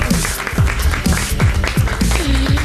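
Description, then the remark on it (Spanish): Audience applause on the Europa FM show You No Te Pierdas Nada fills the whole stretch, a dense, steady wash of clapping, with a regular low thumping beat pulsing underneath roughly twice a second. “Y un aplauso para todo el mundo que nos escucha y nos ve.”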